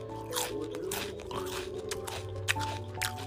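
Crunchy chewing, with repeated crisp bites and crackles in an uneven rhythm against a steady low hum, and no voices.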